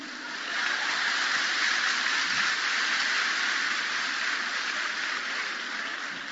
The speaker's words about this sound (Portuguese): Não entendi essas palmas.